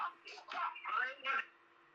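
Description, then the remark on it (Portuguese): A phone ringtone for an incoming call sounds in a quick series of bright, warbling bursts over a faint steady hum, and it stops after about a second and a half. “Quem tá me ligando, cara?”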